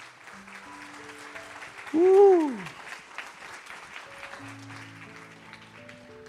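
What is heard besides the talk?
audience applause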